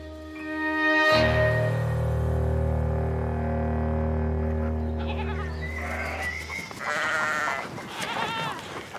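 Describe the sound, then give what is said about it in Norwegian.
A sheep lets out one long, wavering bleat lasting several seconds, followed by softer, shorter bleats and rustling farmyard noise. “ble født blant sauer og potetåkre på Fagerstrand på Nesodden i 1901.”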